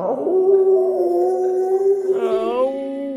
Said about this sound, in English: And so you race back to town but you hear a howl in the distance.